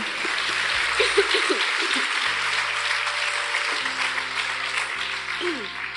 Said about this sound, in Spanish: Y todo el pueblo agradecido le da un fuerte aplauso.